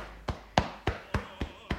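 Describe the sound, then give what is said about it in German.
Six soft, dull taps land at a steady, even pace, each a short padded slap of hands tapping along the leg, moderately loud over a quiet background. “Einfach das Bein runter klopfen, über den Fußrücken klopfen und das Bein an der Außenseite wieder hochklopfen bis zum Gesäßmuskel Muskel hoch.”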